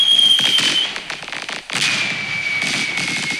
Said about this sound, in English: Hold on, let me sound the fireworks for that